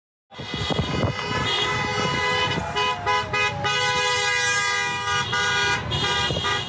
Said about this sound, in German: Das wütende Gehupe ist in äh, Michigan äh, vonstatten gegangen.